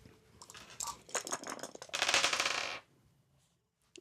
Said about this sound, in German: Wir würfeln jetzt gleich mal schnell, würfeln, wir?